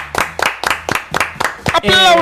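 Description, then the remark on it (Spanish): Steady rhythmic clapping, about eight sharp claps at an even quick beat, followed at the end by a burst of voices. “Aplaudan, eh, no dejen de aplaudir.”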